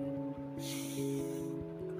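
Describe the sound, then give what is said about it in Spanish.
A single deep, airy inhale and exhale lasting about a second, clear, over a steady soft musical drone with no talking, done as a breathing exercise to control anxiety. “Ah, inhalar y exhalar profundamente.”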